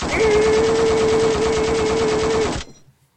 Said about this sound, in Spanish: Tiré balazos